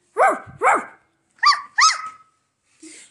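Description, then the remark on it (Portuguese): A voice imitates a dog barking: two pairs of sharp woofs, followed by a softer, shorter yap at the end. There is no other talk. “Como que o cachorro late?”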